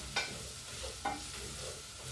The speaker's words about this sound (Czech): A já tam rovnou prostě přigrcnu, přigrcnu tak, no, takovou jako normální rozumnou polívkovou žíci, žíci mouky a rovnou to promíchám, aby se mě to, aby se mi udělala zásmažka patriková.